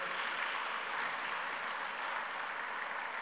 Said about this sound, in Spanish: Denle un aplauso al Señor, por favor, en esta noche.